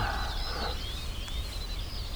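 An ortolan bunting sings a run of thin, clear whistled notes in the open air at Åkerholmen, with a steady low wind-like rumble underneath.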